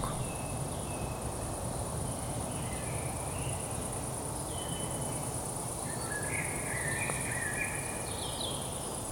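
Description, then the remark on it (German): Scattered bird calls and short song phrases drift through a forest at dusk, over a constant high insect drone and a low, rustling ambient hum. “Vögel begrüßen die Abenddämmerung.”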